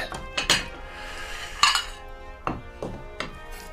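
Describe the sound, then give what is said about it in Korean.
Paprika being set onto a white ceramic plate, with about five or six sharp clinks and taps of utensils against the dish at an irregular pace, with no talking. “퍼프리카는 역시 이 화이트 접시에”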